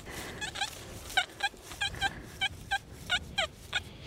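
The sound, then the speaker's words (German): A metal detector squeals in a field on a Saturday morning, a quick, uneven series of short, high-pitched warbling chirps, about a dozen over a few seconds, moderately loud above a low outdoor rumble, with no one talking. “Okay, also es quietscht ein bisschen lauter.”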